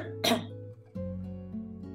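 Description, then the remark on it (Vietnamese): A single sharp cough from a female teacher giving a history lesson bursts out near the start, followed by a low voiced hum or throat sound that lingers through the rest of the moment. “cô xin lỗi tự dưng lại bị ho cô sẽ nói lại cái đoạn này nhé”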